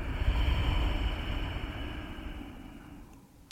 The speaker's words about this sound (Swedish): För genom att kontrollera andetaget på det där sättet så får du en känsla av, av kraft, av självförtroende, av kontroll. Vi tar 3 till 5 andetag till. Ujjayan ett tag med det där lätta motståndet i halsen. Andas in. Andas ut.